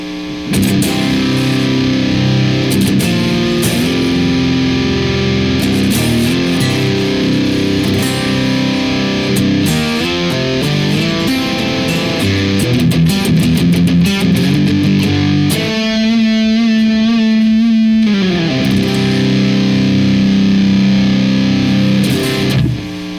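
A heavily distorted electric guitar, run through a compressor, a DS1 distortion pedal and a 10-band EQ into an amp with KT88 power tubes and a 4x12 Greenback cabinet, plays loud, sustained chords and riffs for the whole stretch, with a held, ringing note near the end before the riffing resumes. No voices.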